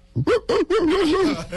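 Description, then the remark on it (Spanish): A human voice mimics a dog, giving two quick yapping barks followed by a longer, wavering whine-like howl, fairly loud with nothing else around it. “No, eso es un perro, Pinky.”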